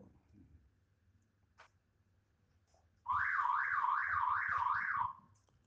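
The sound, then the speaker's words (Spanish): A car alarm blares for about two seconds, a loud, warbling siren rising and falling in quick regular sweeps, preceded by a brief click and faint background rumble, then cutting off abruptly. “nuestro amigo de alarma.”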